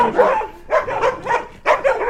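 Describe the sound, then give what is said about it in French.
Four dogs bark in quick, overlapping bursts as they run around a large wire-mesh enclosure like a greenhouse, a rapid run of loud yaps and woofs that comes in clusters, with no one talking. “il y a les quatre chiens qui courent autour de. Ça fait comme une grande serre grillagée.”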